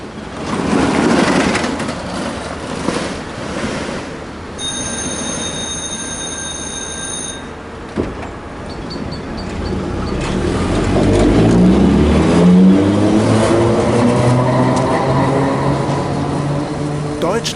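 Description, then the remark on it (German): A German ring-line tram nicknamed Ille or wilde Zicke hums and rumbles with its electric motors and parking brakes on the way to the Vogelwiese stop. Its departure bell rings as a steady high tone for a few seconds, then a rising motor whine climbs in pitch as it pulls away, with faint voices in the background. “Und man hört die wilde Zicke oder auch einfach nur Ille, zwei ihrer Spitznamen, auf dem Weg zur Haltestelle Vogelwiese mit ihren markanten Elektromotoren, den Feststellbremsen und dann beim Abfahren das Klingeln.”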